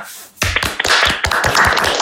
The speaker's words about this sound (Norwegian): Ja, vi har jo akkurat blitt kåra til årets byrå igjen av Byråprofil. Det er jo veldig stas, så det må jo vi få lov å skryte litt av her det eh, er jo typ må det absolutt på sin plass. Jeg syns vi skal ta en liten kort applaus for det.